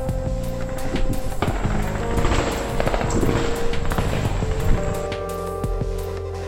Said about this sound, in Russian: Но потом я удивился, потому что военные начали ходить здесь. И звуки уже стрельбы были слышны еще громче.